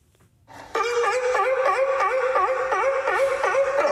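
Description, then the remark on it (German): A sea lion calls out loudly and continuously, a harmonic, wavering honk that rises and dips in repeated pulses without pause for several seconds. “So ein Seelöwe gehört für viele Zoos zu den Attraktionen”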